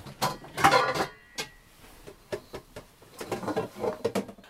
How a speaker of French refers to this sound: On va sortir la gamelle.